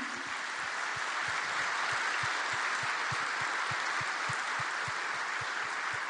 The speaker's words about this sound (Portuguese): Nós queremos aplaudir sua bravura e dizer que seu filho